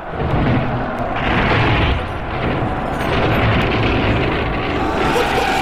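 A city gate being smashed open by attacking soldiers forcing their way in: a loud, sustained roar of heavy crashing and rumbling debris that fills the whole stretch without pause, overpowering, with no voices.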